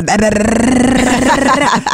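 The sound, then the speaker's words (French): A voice imitates the loud engine of the parents' car arriving, heard from far off, a sustained growling drone held for about two seconds, strong. “On reconnaît les voitures, ben on les voit arriver.”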